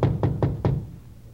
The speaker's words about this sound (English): Frank and I went up to the fourth floor and knocked at the door.